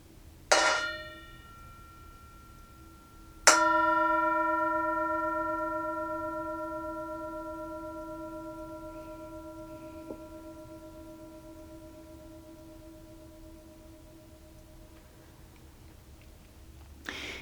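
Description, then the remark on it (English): A singing bowl is tapped lightly once, then struck firmly, its bright layered tone ringing out alone and fading slowly over more than ten seconds. “And as per usual, we have the singing bowl, and you're invited to enjoy the sound of the bowl, enjoy the sound of the bell.”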